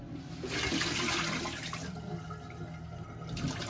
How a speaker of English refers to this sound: Hold on. Let's take the bowl and get rid of all this water.